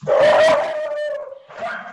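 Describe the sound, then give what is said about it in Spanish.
A dog barks at a passing cat in a loud, drawn-out bark that stretches into a whining howl, then gives a shorter follow-up bark, agitated and sustained. “sí, el perro. bravo. Ah, sí, pasa pasó el gato.”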